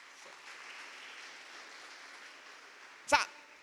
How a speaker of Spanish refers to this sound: A ver, un aplauso al pueblo de Israel.